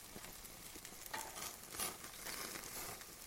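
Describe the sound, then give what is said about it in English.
Steady, soft sizzling of a burger frying in a pan, a continuous crackly hiss with small pops rising and falling, fairly quiet and with no voices. “There's only one, and that was the sound effect. It lasts a fucking minute of listening to someone sizzle a burger.”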